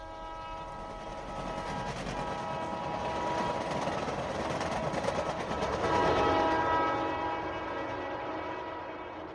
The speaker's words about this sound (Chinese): 我三十五岁的这一年去加格达奇出差，回来的时候坐的是一四六八次火车。